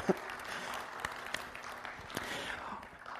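Steady applause from an audience, a dense wash of many hands clapping at an even level with a few sharper individual claps standing out, no talking over it.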